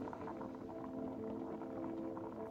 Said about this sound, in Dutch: Ten derde, ontsteek de benzine en plaats een pannetje water boven de geul. Ten slotte, wacht tot het water kookt en voeg de thee toe.